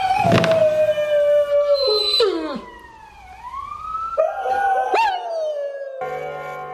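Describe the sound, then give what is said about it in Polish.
A dog howls loudly, its long wavering wails sliding up and down in pitch over several seconds, broken by a few sharp clicks and brief pauses. “Wyje.”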